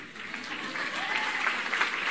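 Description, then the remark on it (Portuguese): A church audience applauding after more men than women were baptized for the first time in the church's history: a steady, dense wash of many hands clapping at once, holding a fairly even level throughout with a slight swell toward the end, and no one speaking over it. “Gente, talvez vocês não saibam o que, que isso significa, mas pode aplaudir.”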